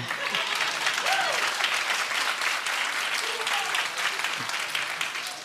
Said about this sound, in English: So, first service gave her applause. I won't ask you to do that,